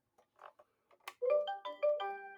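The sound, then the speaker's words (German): A rainbow-coloured toy keyboard, on being switched on, plays a short electronic jingle, a few bright, buzzy tones stepping up and down in pitch, loud and alone after some faint clicks and rustling. “Ich finde das so schlimm, wenn man das anmacht. Das macht so ein ekliges Singsang.”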